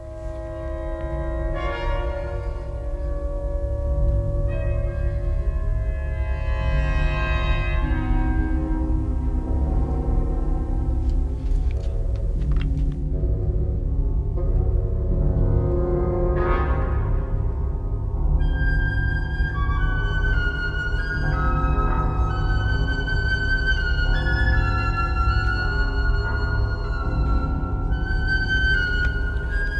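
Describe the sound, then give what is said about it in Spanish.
Dense orchestral music with dissonant sustained tones and shifting timbres passing between instruments, steady and fairly loud throughout, with no voices. “Es decir, eh, conseguir con los diferentes timbres de un mismo instrumento o que van pasando por la orquesta, conseguir una línea melódica de este tipo.”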